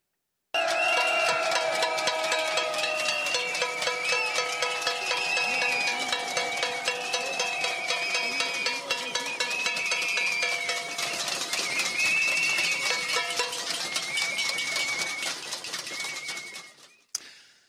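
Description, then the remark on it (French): A dense, continuous clatter of many metal pots and pans banged at once by protesters greeting French President Emmanuel Macron on a visit to Alsace, France, a loud crowd din of rapid overlapping clanks sustained throughout, with no clear voices standing out. “La première, ce concert de casseroles pour accueillir le chef de l'État.”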